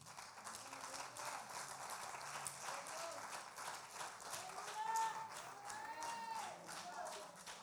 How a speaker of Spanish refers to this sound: De un aplauso fuerte al que vive y reina.